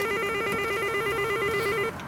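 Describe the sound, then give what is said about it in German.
A doorbell rings with one long, steady electronic buzz, a bright, even tone holding for about two seconds before cutting off abruptly, as SPD members canvass door to door in Berlin-Neukölln in the early evening. No one speaks. “SPD-Mitglieder klingeln sich paarweise durch den frühen Abend.”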